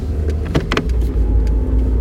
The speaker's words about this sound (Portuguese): Bem, estou aqui nas ruas de Coimbra, é uma da manhã, vim dar uma volta de carro.